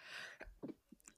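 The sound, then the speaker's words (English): A single sneeze: a sharp, hissing burst of breath, followed by a few soft, brief vocal sounds. Fairly quiet, with no speech. “I'm about to sneeze.”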